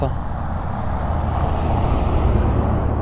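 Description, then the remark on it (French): A big four-by-four truck rumbles past on a road in the Mojave Desert, its deep engine roar steady and loud for a few seconds, swelling slightly as it goes by. “Attendez, excusez-moi, il y a un gros, gros, gros 4x4.”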